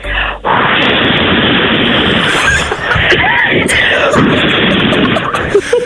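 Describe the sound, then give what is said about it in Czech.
A woman imitates a howling wind with her voice, a loud, steady, breathy whoosh held for several seconds, with rough, gusty texture throughout. “Myslíš, že bys nám taky jako předvedla ten zvuk toho větru do éteru, víš, jako no, jenom tak.”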